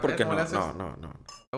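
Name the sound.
glasses clinking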